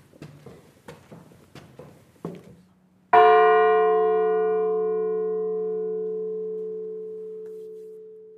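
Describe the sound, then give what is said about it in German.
A few soft knocks and shuffles, then a single loud strike of the tower bell of the church in Krenzlin that rings out and hums slowly away over several seconds. “Und der Turm samt Glocke ist noch intakt.”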